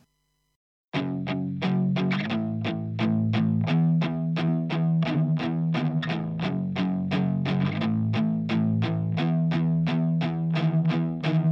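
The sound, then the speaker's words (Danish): A song's instrumental intro kicks in after a brief silence, with steady, rhythmic distorted guitar chords pulsing evenly alongside a driving beat, loud and full, no voices. “Vi skal høre denne sang.”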